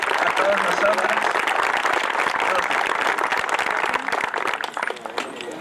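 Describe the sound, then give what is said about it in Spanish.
A crowd applauds steadily to welcome a speaker, a dense wash of many hands clapping at once with some voices mixed in, staying loud for several seconds before tapering off near the end. “Un aplauso para recibirlo.”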